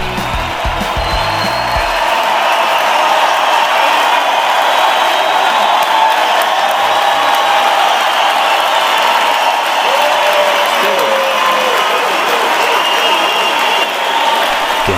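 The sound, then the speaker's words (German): Loud, frenetic applause and cheering from a large concert crowd as a musician walks onto the stage, a continuous dense roar of clapping with whoops mixed in, sustained for the whole stretch without pause. “unter frenetischem Applaus auf die Bühne.”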